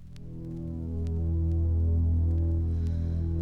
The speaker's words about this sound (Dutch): laten we eerst gaan luisteren naar de intro van de originele, de Duitse …